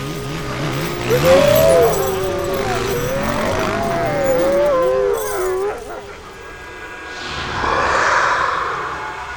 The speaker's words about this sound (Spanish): Suelten a los lobos.